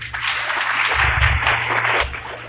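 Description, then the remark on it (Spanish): An audience claps steadily for a few seconds, a dense, even wash of many hands with a low hum underneath, holding at a fairly loud level before easing slightly at the end. “Ahora, un fuerte aplauso a los 10.”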